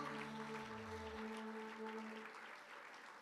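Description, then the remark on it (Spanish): A church audience applauds in praise of the Lord in a steady, dense clatter of clapping, with sustained organ-like tones holding underneath before fading out midway while the applause continues. “aplauso de alabanza para el Señor.”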